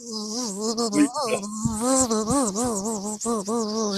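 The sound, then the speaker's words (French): A person imitates a buzzing fly with a steady, nasal vocal drone that wavers in pitch, fairly loud, continuing for about four seconds without words. “T'as vu comme je fais bien la mouche On dirait que j'ai fait ça toute ma vie.”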